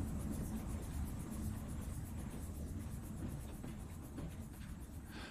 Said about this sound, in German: Der Zug rollte für eine Weile langsam durch das Stadtgebiet. Dann wurde er schneller.